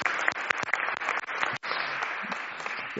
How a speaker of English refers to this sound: A big round of applause. Well done.